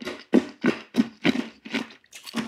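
Loud crunching of a hard candy, like a fruit drop, crushed between teeth after being held on the tongue, in a steady series of about seven sharp bites, each with a gritty cracking burst, and no talking.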